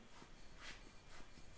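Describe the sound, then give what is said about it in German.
A few soft puffs of air from a rubber bulb blower, short breathy hisses repeating at a steady pace, quiet, with no one talking. “Das ist eine, das ist eine Klistierspritze.”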